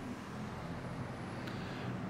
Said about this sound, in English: San Francisco, uh, with some traffic noise which may punctuate the poems.